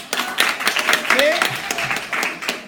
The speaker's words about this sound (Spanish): Un aplauso también